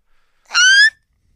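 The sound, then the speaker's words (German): A voice gives a single loud, high, squealing tone for under half a second, its pitch creeping upward, mimicking microphone feedback. Silence surrounds it. “Mikros quietschen doch immer. Ach so, du meinst die Rückkopplung.”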